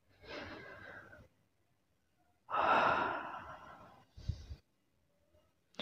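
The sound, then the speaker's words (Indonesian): A breathy inhale is followed after a pause by a long, loud, deep breath drawn in, then a short sharp intake at the end. No talking, just airy breathing. “Ku tarik napas panjang.”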